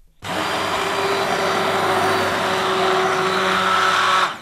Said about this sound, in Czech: A můžeme rozmixovat. Ponorným mixérem. Ponorným mixérem. Do hladka, dobře.